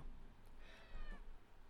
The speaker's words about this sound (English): Wait, this cat. I'm sorry, the cat's getting fatter because he harasses me. Now that I'm in the house, he harasses me nonstop for food, and I have to stop it. He's he manipulates me. He knows how to work it. He does.